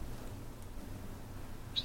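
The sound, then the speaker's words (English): A voice imitates a squeak three times: after a stretch of quiet low rumble, quick, high-pitched squeaky chirps pop out right at the end, short and fairly faint. “Squeak three times.”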